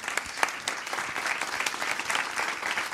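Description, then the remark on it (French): Steady audience applause, a dense wash of many hands clapping at an even level for a few seconds, with a few sharper individual claps standing out and no talking over it. “Je voudrais qu'on applaudisse parce que voilà.”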